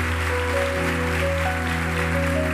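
An audience applauds the word of God in a steady, dense wash of clapping that holds evenly for the whole moment, with sustained keyboard chords ringing underneath and no one speaking.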